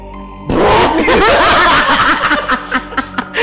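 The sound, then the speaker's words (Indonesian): A voice loudly imitates someone straining and pooping in a portable toilet at night, a sudden burst of strained, gurgling vocal noises that breaks into choppy, laugh-like pulses. “Gila itu horor itu suara itu menghantui gue 7 hari 7 malam itu itu orang berak mah”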